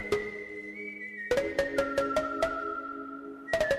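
A song's instrumental opening: a sustained, whistle-like melodic line hovers alone, then a steady pulse of sharp, punchy beats enters beneath it. Clear and upfront, with no voices.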